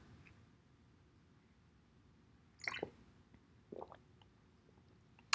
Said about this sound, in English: Also, oh, I apologize if you could hear me um swallowing that. Some people don't like that. I don't not really a fan of um those sounds. Um, but I don't know. I just felt like I had to take a sip.